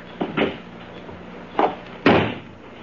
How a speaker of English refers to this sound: Then stand aside while I release the brake and close the door.